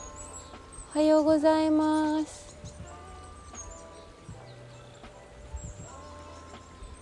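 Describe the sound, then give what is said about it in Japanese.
Faint chirps from small birds come and go in the morning over a steady outdoor hiss of a murmuring stream, heard from a balcony, while a voice briefly speaks a greeting near the start. “おーすごい空気が澄んでるせせらぎ川のせせらぎ今朝起きた時は小鳥が鳴いていたんだけど今も鳴いてる”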